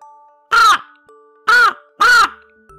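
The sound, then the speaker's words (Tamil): A crow walking here and there caws three times, loud, each call harsh and drawn out with short pauses between, the last two coming in quicker succession. “இதுக்கு அடுத்த நாள் மொத நாள் வந்த அதே நேரத்துக்கு இந்த காக்கா திரும்ப வந்துச்சு அங்கேயும் இங்கேயும் நடந்து”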